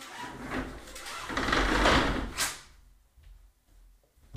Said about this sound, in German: So hören sich meine Rollladen an.